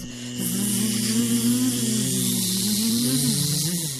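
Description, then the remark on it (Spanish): A steady, droning buzz of flies that wavers slightly in pitch, fairly loud and continuous throughout, over a faint background hiss with no voices. “Un zumbido en una vasta noche. Las moscas.”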